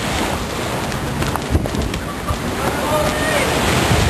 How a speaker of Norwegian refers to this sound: Vannet fortsetter å fosse og stige.